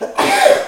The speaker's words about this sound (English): Bless you.